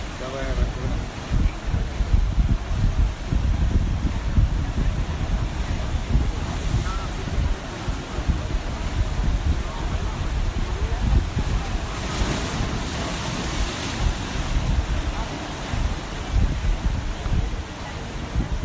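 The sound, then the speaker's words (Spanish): Sea waves break below a coastal spot near the Plaza del Charco in a steady, roaring surf, swelling louder now and then, with gusty wind rumbling across the microphone throughout. “Te dejo eh, disfrutando del agua y del mar y del sonido de las olas.”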